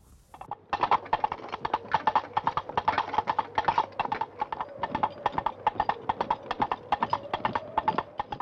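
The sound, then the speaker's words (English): Two empty hollow coconut shell halves knocked together in a brisk, steady clip-clop rhythm that imitates trotting horse hooves, a Foley technique, continuous for several seconds with no talking. “Think coconut for horses' hooves.”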